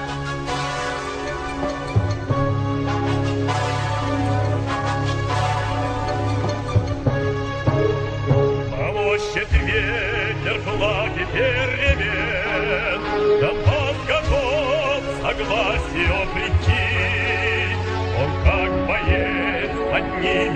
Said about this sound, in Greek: στο Ντονιέτς κυκλοφορούν πλέον δύο εκδοχές του εθνικού ύμνου. Η πρώτη, εθνικιστική και με έντονες μουσικές αναφορές στη Σοβιετική Ένωση, ακούγεται κάπως έτσι.